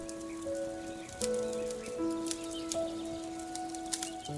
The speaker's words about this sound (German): Stell dir vor, du befindest dich inmitten einer atemberaubenden Landschaft, umgeben von einem leuchtenden Feuer. Spüre die Hitze auf deiner Haut und höre das Knistern und Prasseln der Flammen.